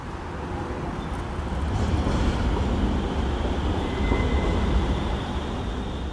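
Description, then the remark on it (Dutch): A tram rolls past with a steady, heavy rumble and a faint metallic whine, set against the constant wash of busy city traffic with cars and cyclists on the Hofplein, a city square. “We nemen de proef op de som en we lopen tegen de klok in over het Hofplein, over de zebrapaden, langs de trams en de auto's en de fietsers om ons heen.”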